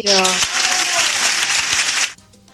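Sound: played applause sound effect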